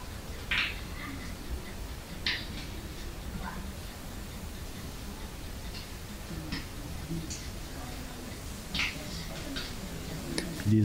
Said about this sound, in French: J'entends facilement le feu. Le, feu il est très distinct. Là. Ouais, les craquements.